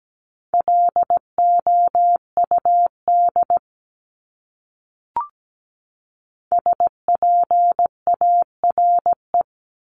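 A steady mid-pitched tone keyed on and off in quick dots and dashes, Morse code sent at 17 words per minute, in two groups separated by a pause with a single soft click between them.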